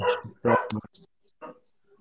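A dog barks a few times, short sharp woofs in quick succession followed by a softer yip, with brief pauses between.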